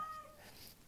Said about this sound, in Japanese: えー、っと猫が鳴いてるんですすいません